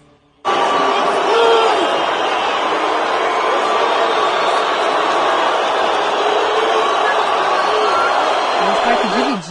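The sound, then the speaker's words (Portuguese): A large concert crowd boos a British rock musician loudly and steadily after he associated presidential candidate Jair Bolsonaro with fascism during the campaign, a dense roar of jeering voices that holds at full strength for nearly ten seconds before cutting off abruptly. “Tem até a vaia aqui, uma recuperação que a gente fez.”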